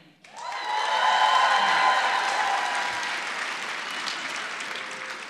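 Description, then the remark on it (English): A live audience of Chicago Cubs fans bursts into loud cheering and applause that swells quickly, holds steady with whoops and shouts, then slowly tapers off over several seconds. “All right, before we answer that question, make some noise if you're a Cubs fan.”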